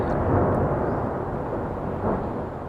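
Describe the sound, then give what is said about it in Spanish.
A heavy, continuous rumbling roar from Russian missile explosions in Kyiv, Ukraine, deep and broad, swelling slightly at moments but never breaking into sharp separate blasts, with no voices present. “Con las explosiones han llegado también los sonidos de las ambulancias y la recuperación de cadáveres y heridos.”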